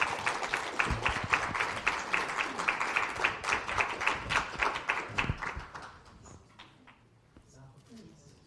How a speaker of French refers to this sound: Merci à vous. Je crois qu'on peut applaudir tous les intervenants.